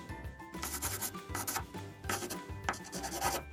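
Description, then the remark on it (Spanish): A pen or pencil scratches across paper, writing down an answer, in a quick run of rasping strokes, with short pauses between bursts and no voices. “Ya sé, entonces escriba mi respuesta.”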